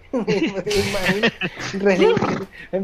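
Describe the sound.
Someone imitates a horse neighing with their voice, a loud, wavering whinny that rises and trembles over about three seconds, with no actual horse present.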